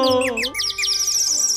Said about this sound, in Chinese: 对，这只人造夜莺啊，唱起来歌还真好听呢！ 真好听，好好听啊！